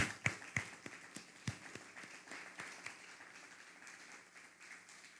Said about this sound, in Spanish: Vamos a darle un fuerte aplauso a Alemania, también a España.